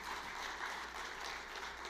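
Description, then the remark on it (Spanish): An audience claps together, applauding God for his mercy, in a dense, steady wash of applause, many hands blending into continuous crackling noise that holds at an even, fairly loud level throughout. “¿Cuánto damos aplauso a Dios por su misericordia?”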